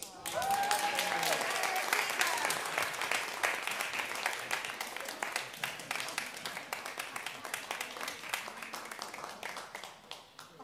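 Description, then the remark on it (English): A crowd applauds the star of a Christmas show, Jesus, steadily for about ten seconds, many hands clapping in a dense, bright patter that fades slightly toward the end, with a brief whoop or cheer near the start. “And now let's have a round of applause for our star of the show, Jesus.”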